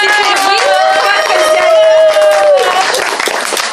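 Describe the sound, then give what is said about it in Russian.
A crowd applauds loudly and steadily at a library ceremony handing over keys to a room, dense overlapping claps filling the space, while a sustained voice-like tone rises over the clapping and fades before the end. “От лица администрации нашей библиотеки я хочу в торжественной обстановке под бурю аплодисментов, передать вам ключики от нашей волшебной комнаты.”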